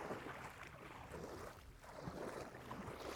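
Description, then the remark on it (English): Hands paddle through water beside a boat, producing a continuous swish and slosh with a brief lull midway, mixed with breezy outdoor noise and no talking. “I'm using my paddling with my hands.”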